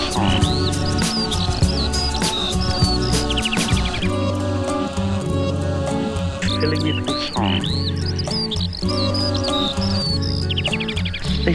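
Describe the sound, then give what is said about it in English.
A bird sings high in the sky, with bright quick chirps and rising trills repeating throughout, layered over a dense, sustained musical backdrop at a steady, fairly loud level. “a few cotton wool clouds, higher and higher in the great dome of the sky, filling it with song.”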